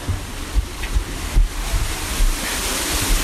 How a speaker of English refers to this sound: All right, now we're back behind the waterfall again.